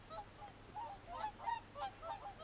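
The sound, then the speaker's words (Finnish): Whooper swans call in a steady series of bugling, nasal honks, several overlapping in an uneven rhythm, mid-pitched and fairly loud over a low background hum, with no talking. “Laulujoutsen on tästä täydellinen esimerkki.”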